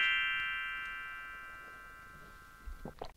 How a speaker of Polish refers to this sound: Dobrze, i tu dla Ciebie jeszcze będzie dzwoneczek.